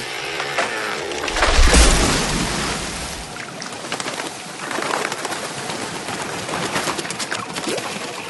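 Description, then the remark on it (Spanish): In a film sound mix, a heavy, booming crash of a falling tree rings out, followed by a rush of birds taking off, wings fluttering and beating in a busy outdoor wash of sound. “Me paré dije, aquí el árbol que se caiga y quiero escucharlo hasta allá y que los pájaros vuelen.”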